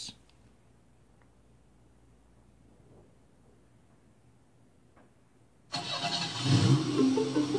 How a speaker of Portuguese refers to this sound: Este não é apenas o som da partida de um carro.